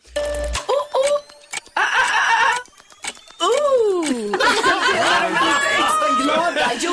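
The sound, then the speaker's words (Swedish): A contestant on the quiz show På spåret imitates three monkey calls within five seconds: a few short whooping yelps, then a long swooping hoot, followed by a burst of rapid, excited chattering and shrieks. “du har fem sekunder på dig att göra just tre ljud som apor gör.”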